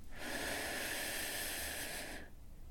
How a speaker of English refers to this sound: As you listen to me guide you, I invite you to take a deep breath in through your nose with me for the count of three in three, two, one breathing in